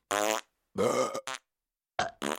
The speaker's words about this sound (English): After all that scoffing, the three felt more than a little unwell, though nobody wanted to admit it. They went back to their bunk beds, farting and burping